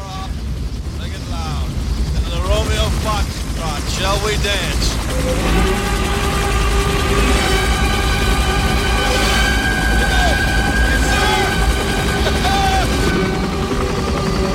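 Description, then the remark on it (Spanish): Shouting voices over rumbling engine noise give way to Ride of the Valkyries, a loud, sweeping orchestral piece with sustained brass and strings, played under the steady din of a flock of helicopters in a scene from the film Apocalypse Now with actor Robert Duvall. “Eh, pues ahí con la cabalgata de las Valquirias, de fondo.”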